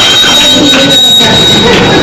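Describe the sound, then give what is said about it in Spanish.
A telephone rings in a butcher shop with a steady, shrill high-pitched electronic tone that lasts the whole moment, set against a loud, rumbling, noisy background with no clear talking. “El teléfono, maldita sea.”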